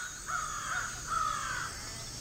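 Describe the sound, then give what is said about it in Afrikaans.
Two harsh, drawn-out crow caws, one after the other, each rasping and mid-pitched, over a steady background hiss with no talking. “Kitty loop hartseer terug na waar die ander kraaie bly.”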